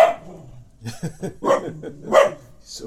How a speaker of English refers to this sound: Should explain we've got a dog in the background, which is what the thumping has been.